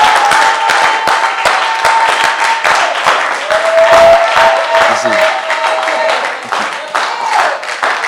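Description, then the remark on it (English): An audience claps in a loose, half-hearted way, with scattered uneven claps throughout, over a steady murmur of voices and a faint sustained tone. “you see that cheap clapping, it came again, you see.”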